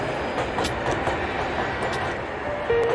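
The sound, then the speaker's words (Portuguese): A train rumbles past, a loud steady roar of wheels and rattling carriages as it runs over a woman who has stepped back, with a thin high-pitched squeal rising briefly near the end. No voices. “Daí ela, tipo, dá um passo para trás e o trem passa por cima dela”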